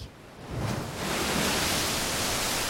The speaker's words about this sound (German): Auf dem kahlen Felsen in den Wellen des Atlantiks, über den unablässig der kalte Wind hinwegfegt